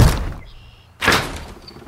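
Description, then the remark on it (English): Loud knocking on the door of a house: two heavy, booming bangs about a second apart, reverberant, with no voices and a faint high hum lingering between them. “guess I'll have to knock louder.”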